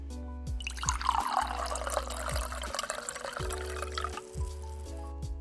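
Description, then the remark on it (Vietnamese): Tea is poured steadily into a cup for several seconds, a bright splashing trickle that rises in pitch as the cup fills, with no voices present. “Bạn thử nghĩ về ba điều mà mình muốn nói về bản thân trong lúc mình đi rót một tách trà nhé.”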